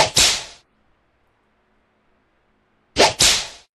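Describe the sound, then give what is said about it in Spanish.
A loud whip crack sound effect with a sharp swish, then silence for a few seconds before a second whip crack that lands as two quick snaps in a row. No voices. “no se escuchó el, latigazo.”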